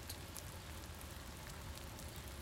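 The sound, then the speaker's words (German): Steady rain falls in a continuous dense patter, with scattered sharper drops ticking through a broad hiss; no voices, just the rain. “Es regnet doch.”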